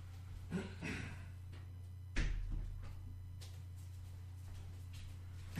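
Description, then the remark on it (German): A door, blown open by the wind, thuds shut once, a sharp solid knock followed by a brief rattle, after some faint shuffling movement, over a steady low electrical hum. “So, jetzt muss ich mir ganz schnell die Tür zumachen, die ist nämlich durch den Wind gerade aufgegangen.”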